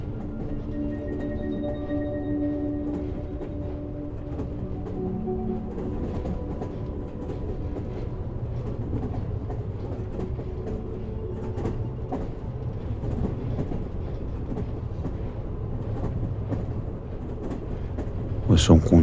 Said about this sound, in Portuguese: contínuo da locomotiva vai gerando uma sensação de relaxamento. Isso ocorre porque ruídos repetitivos e previsíveis nos trazem uma sensação de estabilidade e conforto. É como se eles dissessem: está tudo bem, pode relaxar.